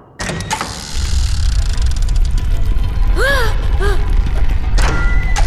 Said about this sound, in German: Was war denn das? Der Stein! Er ist weg! Eine Tür! Hey Leute! Hier ist eine Geheimtür aufgegangen! Eine Tür? Ja, in der Brunnenwand. Der Stein war der Riegel.